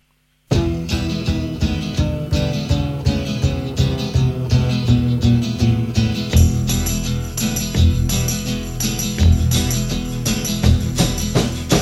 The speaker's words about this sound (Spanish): Mientras, mientras busco, lo vamos escuchando la canción.